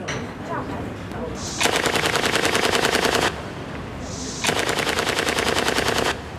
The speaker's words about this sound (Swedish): Han hade skaffat ett par kopior på automatpistoler. De såg ut som riktiga, men fungerade bara med löspatroner.